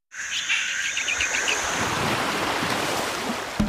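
Steady surf washes onto a Caribbean beach in a broad, continuous roar, while birds chirp and call brightly over the top in the first couple of seconds. No one speaks.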